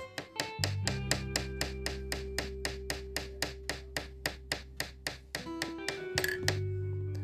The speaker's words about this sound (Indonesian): Nah, mendengar suara lesung padi yang bertalu-talu, tiba-tiba burung bu, eh, ayam-ayam pun berkokok.